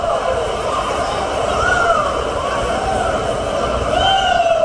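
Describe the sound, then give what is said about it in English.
A rowdy tennis crowd at the Australian Open roars and shouts without pause, a dense wash of voices with individual cries and whoops rising above the din, loud and sustained throughout. “the crowd started to get a little unruly”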